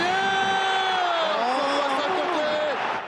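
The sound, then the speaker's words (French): A football stadium crowd cheers in a dense, sustained roar as it rises to its feet in the 17th minute of a match against City, with many voices rising and overlapping at a steady, loud level throughout. “17e minute, le public se lève.”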